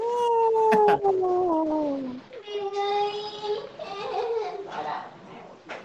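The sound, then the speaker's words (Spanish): A drawn-out, wailing cry like a baby's, made by a person mocking others, sliding down in pitch and then rising again in a few long, whiny bursts, fairly loud for several seconds. “Alguien está llorando por ahí. Parecía un bebito, parecía un bebé.”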